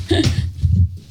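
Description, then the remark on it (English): A door that a dog pushed open swings shut as someone closes it, with a soft, muffled thud, followed by a brief low rumble of handling as it settles closed. No one speaks. “Let me just close it a minute.”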